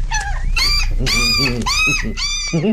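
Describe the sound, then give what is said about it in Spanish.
A dog named Tintín whines and whimpers in about five loud, high, wavering cries, some drawn out, with lower rumbling growl-like tones mixed in toward the end. “Ahora el jodido perro mueve la cabeza.”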